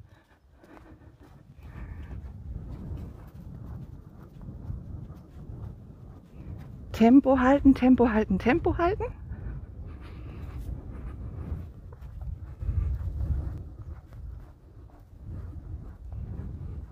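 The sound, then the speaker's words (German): Low, gusty wind rumbles steadily against the microphone throughout, while a voice speaks repeatedly over it and a brief louder tonal burst rises near the middle. “Jetzt wird es windig, nicht erschrecken.”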